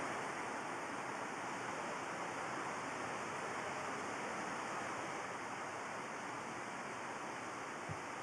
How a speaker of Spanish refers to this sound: Sí, en Esparza era tiene un aguacero tremendo, estaba palo de agua, amén. Tremendo palo de agua.